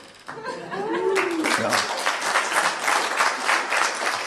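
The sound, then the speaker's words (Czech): A brief burst of voices and laughter gives way to steady, full audience applause, many hands clapping densely and evenly until the end. “Vy mi teď tleskáte a já zítra ráno budu číst stohy e-mailů od všech super teologů a super historiků, kteří mu budou vysvětlovat, jak jsem se spletl.”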